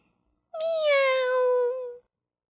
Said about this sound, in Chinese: 小猫伸出舌头，喵